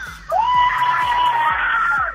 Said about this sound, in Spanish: Para que te escuchen aquí en el Facebook, compadre, que se escuche el grito de la familia.